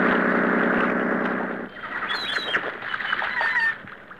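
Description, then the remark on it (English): Large seagulls on an island cry out: a loud, harsh squawk stretches for over a second, then a flurry of shorter, higher calls overlap before fading out. “Belmar's Island had overstuffed seagulls on it the size of vultures.”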